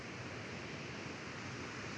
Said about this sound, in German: Es brodelt und sprudelt und schäumt und schließlich stürzt er wie eine weiße Wand aus Wasser in eine mehr als 100 Meter tiefe Schlucht. Die berühmten Victoria-Fälle.